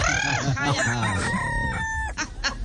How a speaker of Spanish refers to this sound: Le cantó el gallo. Sí, sí, las gallinas también, ahí están. Esas son mis gallinitas y el gallo, don lindas.